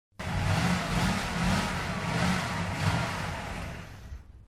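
A motorcycle engine revs loudly, its throaty roar swelling and easing in waves for about four seconds before cutting off, with no voices.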